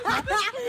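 A short recorded laugh played as a sound effect from a soundboard button: a quick run of two or three voiced, chuckling bursts with wavering pitch, fairly loud and over in under a second.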